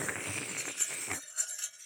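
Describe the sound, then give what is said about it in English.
A metal straw knocks against the inside of a new metal cup, giving a few light, high-pitched clinks spread over two seconds, faint against a low background hum that fades partway through. “It's a metal cup with a metal yeah, straw.”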